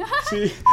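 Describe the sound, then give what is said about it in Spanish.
Brief voice-like murmuring gives way to a loud, steady electronic beep at the very end, a pure time-signal tone marking 10 o'clock in the morning that cuts in sharply and holds. “Pero miren, y justo ese es el sonido de las 10 de la mañana.”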